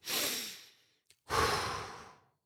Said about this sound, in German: Also kannst du mal gut durchatmen, dass du merkst, hey, Atmung ist wichtig.